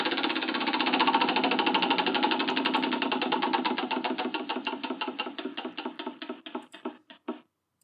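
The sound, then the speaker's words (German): A spinning prize wheel clicks rapidly against its pointer, the ticks gradually spacing out as it slows over several seconds before clacking to a stop. Fairly loud, with no voices. “Ich glaube, das ist der Sound einfach von ja, dem Rad.”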